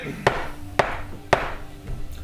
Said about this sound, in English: a knock at your door. eyes ready. Any of you expecting anything? Uh, No. who is it?